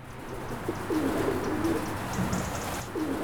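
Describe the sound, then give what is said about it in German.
Domestic pigeons coo in low, throaty, rolling phrases that repeat a few times over a steady background hiss, with a faint higher chirp mixed in. “Taubenschläge für die obdachlos gewordene Haustaube.”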